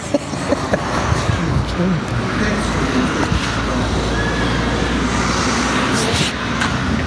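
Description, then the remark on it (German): Steady, dense roar of road traffic rolling by on a street that pedestrians are waiting to cross, a continuous rumbling wash with occasional brighter swells, and faint voices murmuring underneath. “Oh, was ist denn heute Der los? Verkehr zählt nicht.”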